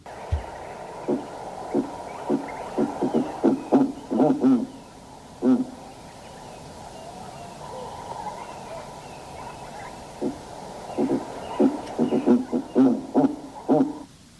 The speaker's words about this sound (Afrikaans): Daai een met die pink ooglede, dit lyk na 'n vreemde uh, diskoteekagtige uil wat vir jou uh, uit 'n doringboom kyk met pink ooglede en onder die doringboom lê dan natuurlik die die reste van krimpvarkies uh, by die hope. En so klink die reuse ooruil.